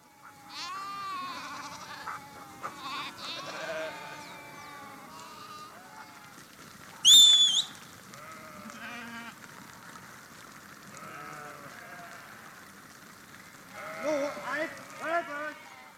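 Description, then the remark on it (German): A flock of sheep bleats continuously as the sheep follow a shepherd who starts walking, many overlapping calls, with a sharp loud burst partway through and a cluster of louder bleats near the end. “Schaut euch an, was passiert mit Schafen, wenn der Hirte losläuft.”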